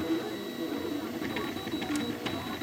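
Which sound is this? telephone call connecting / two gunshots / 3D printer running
3D printer running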